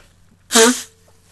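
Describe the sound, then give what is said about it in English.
A single loud, honking nose blow from someone with a cold, lasting about a third of a second, a sharp breathy burst with a buzzing nasal tone, then quiet with faint background hum. “Excuse me, it's going to blow my nose.”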